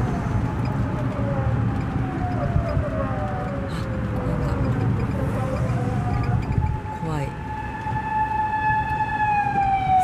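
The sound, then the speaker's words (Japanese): An unmarked police car's siren wails and sweeps past at great speed, its rising and falling tones dropping in pitch as it goes by, then continuing steadily over constant traffic rumble. “覆面パトカーが覆面パトカーがすごい勢いでき去っていきますよ”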